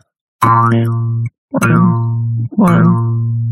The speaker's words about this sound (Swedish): jag hade glömt bort att jag hade denna. Fy vilken irriterande grej detta är. Jag ska öva på en låt på mungiga.